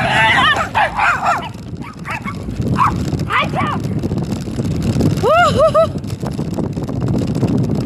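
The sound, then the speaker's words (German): Several unfamiliar dogs bark and yelp in sharp, excited bursts as they run toward a runner, loud, over a constant rushing background noise, with the final high-pitched barks coming in a quick cluster. “Da waren so fremde Hunde. Ja, sind auf mich zugerannt.”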